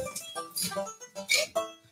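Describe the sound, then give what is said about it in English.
Ice cubes clinking and rattling against a glass as ice is put into a mixer while making a drink, in several bright, ringing bursts at an irregular pace, with a glassy high-pitched tone. No one speaks. “Put your ice in your mixer.”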